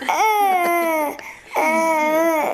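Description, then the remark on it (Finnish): A baby babbles in two long, drawn-out vocal sounds separated by a brief pause, each starting high and sliding gently lower, loud and clear with no one else talking. “on nyt tosi paljon asiaa.”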